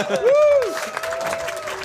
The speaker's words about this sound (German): Du befindest dich auf dem 33C3, du bist hier im Sendezentrum und erwartest eine gute Sendung hier. Ähm, plötzlich tritt leicht Panik auf und eine weitere Person betritt die Bühne. Leute! Großen Applaus!